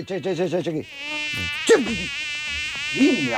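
A thin, whining buzz of a mosquito, wavering rapidly up and down at first, then settling into a steady, insistent drone with a few brief pitch swoops.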